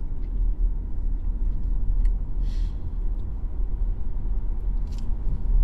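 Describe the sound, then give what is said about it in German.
A steady, low droning hum from an electric car's artificial driving sound generator runs unbroken throughout as the car pulls away, with a couple of faint, brief hissing bursts on top and no voices. “Wobei das auch ein Geräusch ist, was in der Zwischenzeit generiert wird”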